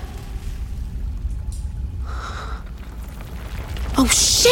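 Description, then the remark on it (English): A deep, continuous rumble fills the space, with scattered shifting noises and a sudden loud crash of falling debris near the end as the walls of a tunnel begin to crumble. “Oh, oh, the tunnel is beginning to crumble and I'm backing into water as I speak.”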